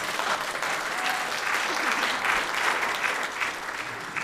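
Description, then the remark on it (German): Steady audience applause, a dense wash of many hands clapping at an even loudness for several seconds, with no voices rising above it. “Ja, Applaus.”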